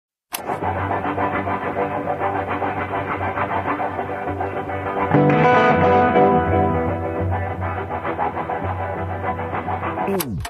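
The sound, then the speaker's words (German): A distorted electric guitar, improvised live as music for a finished film, imitates a train with a continuous, rumbling, chugging drone that swells louder midway before settling back, played alone with no voices. “wie … hier einen Zug nachmacht”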